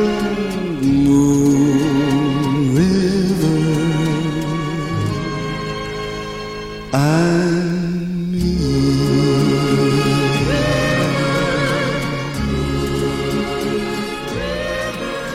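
A slow, lush pop ballad, a 1962 recording of a film theme, plays steadily and fairly loud, with sustained orchestral strings and warm swelling chords. A brief dip and rise marks a phrase change midway.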